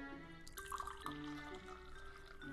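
Black tea (Amsty Angel Jasmine) trickles in a short run of liquid splashing and dripping into a cup, with faint clinks and a soft steady background and no one talking.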